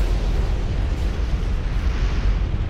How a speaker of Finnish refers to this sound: Mutta Krakatau ei vain sihahtanut se räjähti. Miljardeja kiloja kiviä ja tuhkaa syöksyi mereen, aiheuttaen valtavan kymmenien metrien korkuisen tsunamin.